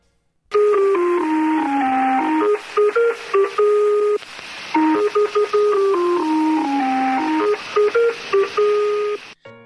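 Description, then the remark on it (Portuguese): A synthesized interval signal opening a numbers station transmission: a melody of pure electronic tones steps down and back up in a short repeating phrase, played twice over a faint radio hiss, clear and steady with no voices. “A maioria delas começa sua transmissão com uma música, sempre a mesma, que pode ser reproduzida por trompetes, tambores ou um som gerado por sintetizador.”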